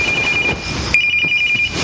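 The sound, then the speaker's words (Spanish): A mobile phone rings in the early morning hours while everyone is asleep, with a high, steady electronic tone in two rapid pulsing bursts, heard over a constant hiss with no one speaking. “De madrugada, todos duermen, cuando de pronto suena un teléfono móvil.”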